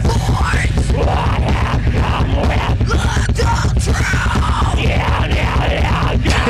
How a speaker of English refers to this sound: See the guy, the guy screaming while he's checking out the bikini babe walking up to the stage.